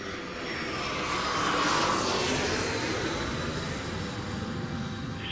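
vehicle, airplane flying overhead

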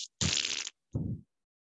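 sound effect, fart noise

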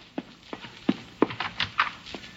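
animal, horse hooves clip-clopping

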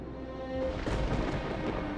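nature, thunder rumbling

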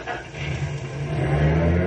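vehicle, car driving off

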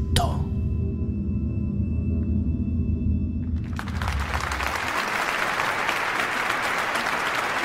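crowd, studio audience applause

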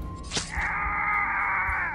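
sound effect, man screaming in pain

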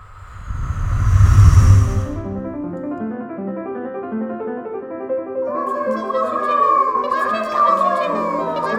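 nature, wind blowing

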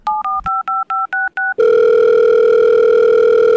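signal or alarm, telephone ringing

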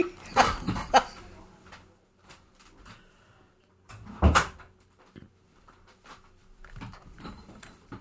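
household object, door being closed

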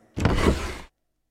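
household object, window being opened

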